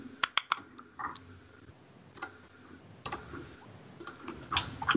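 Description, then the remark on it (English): Dice rolled during a tabletop roleplaying game clatter in a few scattered bursts, a quick flurry of sharp clicks and then several more rattling rolls spaced out over the following seconds, with no talking. “I really wish there was a way to roll these just as I whispered to the GM, but that's okay.”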